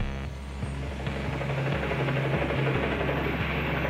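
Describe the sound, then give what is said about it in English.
A helicopter hovers just above the roof of a prison, over the solitary confinement wing, around 3 in the afternoon, its blades thumping in a steady rapid rhythm over a loud, continuous engine roar that fills the whole clip. “Around 3 in the afternoon, the beat of helicopter blades creates this cacophony inside the jail cells.”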